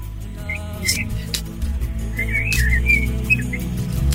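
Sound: birds singing outdoors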